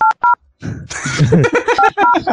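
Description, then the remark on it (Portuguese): Two short, crisp telephone keypad tones beep in quick succession, then a burst of voices and rustling follows, with a few more dialing beeps sounding underneath the talk. “Nossa, parece tel de puta, né? tu... Tu...”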